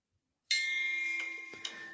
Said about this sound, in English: Got my digital gong for a digital age here.